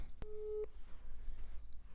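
A single short telephone ringback tone sounds at moderate level over a low background hum, then the line goes quiet with faint static.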